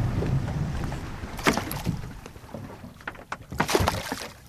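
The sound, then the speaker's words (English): A 20-foot-long research boat moving across water off Maui as it approaches a whale, with a steady low engine rumble, sloshing and splashing against the hull, and bursts of wind buffeting the microphone. No one speaks. “It's twice the size of the 20 foot long research boat. Soon, Darling spots another whale in the distance and moves in closer to it.”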